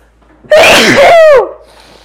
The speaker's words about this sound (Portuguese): preciso espirrar.